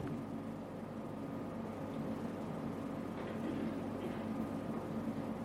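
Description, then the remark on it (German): A steady, unbroken rush of air conditioning hums on its own, a dense low drone with a broad hiss on top that stays at a constant, fairly soft level throughout. “Ich finde das so herrlich, die Klimaanlage. Wie das rauscht da rein.”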